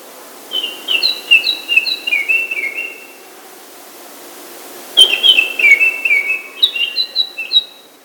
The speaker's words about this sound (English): Baltimore Oriole.